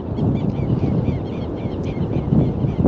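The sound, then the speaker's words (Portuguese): Wind blows steadily and loudly for the whole clip, a low rumbling roar that buffets against the microphone with slight surges and no pauses. “para esta zona que está sendo potencializada pelo vento, para que toda vida que pulsa neste cantinho do planeta possa estar recebendo esse despertar.”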